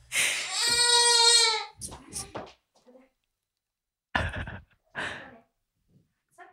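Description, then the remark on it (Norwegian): A girl, tearing at her hair and wanting attention, lets out a loud, drawn-out wail, followed by a few shorter broken cries and breathy sobbing bursts with pauses between them. “Hun står og river i rive seg i håret og vil ha oppmerksomhet. Og jeg syns det er så irriterende å høre på podkasten når hun hyler i bakgrunnen.”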